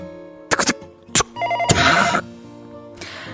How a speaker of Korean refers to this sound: 한 달에 한두 번 울릴까 말까 하는 집 전화가 울리더라고요. 받을까 말까 고민을 하는데 아, 혹시 우리 가족한테 무슨 일이 생겼나? 이런 불안한 생각이 들었고 받아야겠다 생각했죠. 그런데 요란하게 울리는 전화를 향해 발을 떼는 순간